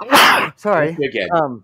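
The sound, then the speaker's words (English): A single loud, sharp sneeze bursts out, followed right away by a person speaking. “Oh, bless you. Oh, bless you.”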